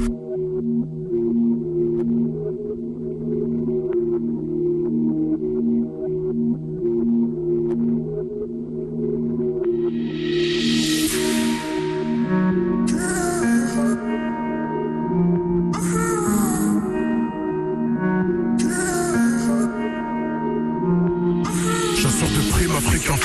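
A rap track's instrumental intro plays with no vocals yet: steady, low sustained chords, then from midway loud hissing noise bursts that repeat every few seconds over the beat.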